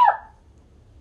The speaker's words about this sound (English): Do I have to sneeze right now? Maybe. Who knows?